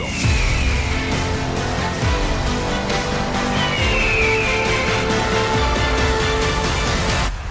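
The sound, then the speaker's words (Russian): A loud, dense transition bumper of about seven seconds, with sweeping, whooshing tones rising and falling over a constant roaring bed, then an abrupt stop. No one speaks. “Так, тут отличное место для перебивки и перехода к э, следующей теме.”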